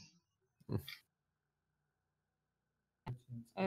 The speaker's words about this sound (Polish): I generalnie mnie zacięło, wybaczcie.